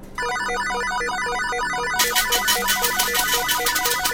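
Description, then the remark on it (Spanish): A slot machine pays out with a bright, repeating electronic jingle of beeping tones, then a rapid clattering burst of coins joins in at a steady pulse, loud and continuous with no talking. “Muchas monedas empiezan a salir de la máquina.”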